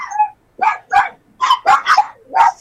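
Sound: dogs barking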